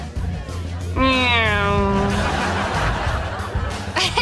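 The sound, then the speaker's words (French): A voice imitates the Doppler effect of a vehicle zooming past, one drawn-out "neeeow" that slides steadily downward in pitch for over a second, loud against a noisy background. “I don't care if anybody gets it, I'm going as the Doppler effect.”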